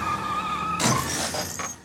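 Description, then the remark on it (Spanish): A steady engine whine runs for under a second before a sudden loud crash as a white luxury car travelling at nearly 200 km/h hits a pole in Mexico City in the early morning, splitting in half, with glass shattering and two smaller smashing bursts trailing off. “El coche, de lujo, partido por la mitad por un poste.”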